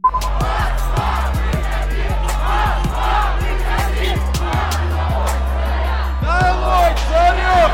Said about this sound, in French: On les entend ici sur TV5 Monde chanter et soutenir l'ancien avocat de 44 ans et crier leur colère contre un régime qu'ils jugent corrompu jusqu'à l'os. Alexei Navalny a été arrêté le 17 janvier lors de son retour à Moscou.